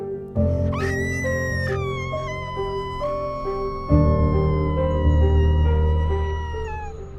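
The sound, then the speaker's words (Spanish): A young girl's high-pitched scream rises sharply, then holds as a long wavering wail that slowly sinks over several seconds, set against a low, droning musical backdrop. “Y escuchó unos gritos de una niña.”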